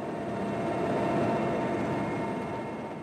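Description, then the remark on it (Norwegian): A loud, steady roar of a Russian UN helicopter flying into Jongle state in South Sudan, a continuous dense engine and rotor drone with no voices over it. “Et russisk FN-helikopter tar oss inn til delstaten Jongle, til kjernen i den etniske uroen som har rystet Sør-Sudan siden landet ble verdens nyeste nasjon i fjor sommer.”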